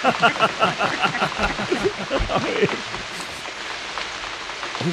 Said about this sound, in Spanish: En una noche de lluvia, estaba lloviendo.